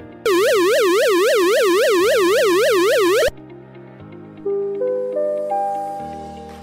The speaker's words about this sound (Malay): Kedua, bunyi siren bahaya.